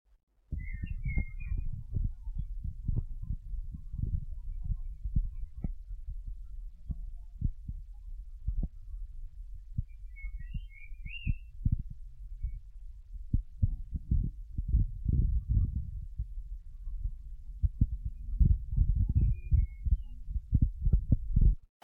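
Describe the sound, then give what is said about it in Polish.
A steady, muffled background noise from a tape recording made without Dolby, using a dynamic mono microphone connected only to the left channel: mostly low rumble with irregular soft thumps and throbbing, continuing throughout with no one speaking and a few faint high chirps. “Przez chwilę nic nie będę mówił, żeby można było zidentyfikować szum.”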